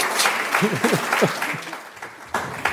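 Audience applause: a dense, steady wash of many hands clapping, fairly loud throughout, with a few faint voices mixed in and a brief dip before the clapping swells again at the end.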